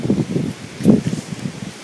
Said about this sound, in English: You can probably hear the wind whistling through the trees, the leaves of the trees above me.